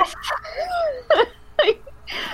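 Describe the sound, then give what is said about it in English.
A person lets out a drawn-out, theatrical groan, followed by two short, strained moaning bursts and a final whiny trailing sound, with pitch sliding up and down. “I'm just gonna come like groan.”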